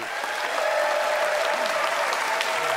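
An audience applauds steadily, a dense patter of many hands clapping at an even level for nearly three seconds, with no voices rising above it; the applause is a vote for a contestant's argument in favor of dressing up pets.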